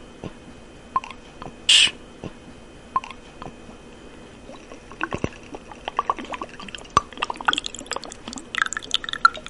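Liquor poured into a small shot glass: scattered drips and light splashes, one brief hiss early on, then a quicker run of trickling clicks toward the end. No one speaks.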